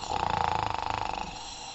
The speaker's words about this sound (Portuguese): o Paçoca roncando. Então a vovó falou: Nossa, que sono pesado, Paçoca.